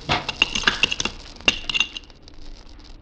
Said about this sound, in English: An ice axe. That was an axe. No other sound in the world like it. fell from up above the overhang there.